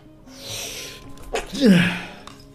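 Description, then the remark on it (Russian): A single forceful sneeze: a sharp inhaled buildup followed by a loud burst with a voiced, tonal "choo" at the end. No talking around it. “А я хочу чихнуть.”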